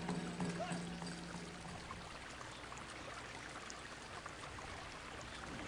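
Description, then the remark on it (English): Oak Creek water streams steadily over rocks at Red Rock Crossing in Oak Creek Canyon near Sedona, Arizona, a continuous rush and gurgle that holds an even level throughout, with a faint low hum briefly audible near the start. “These rocks across the river from where I'm sitting are known as the Red Rocks of Prayer.”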